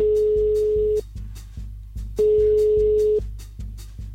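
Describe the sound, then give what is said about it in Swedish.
A phone's ringback tone sounds twice while a repeated call to a mobile number connects and goes unanswered, each steady one-second beep separated by a pause, loud and clear over a soft, rhythmic low thumping in the background. “Nu ringer jag igen, jag känner mig stalkig nu.”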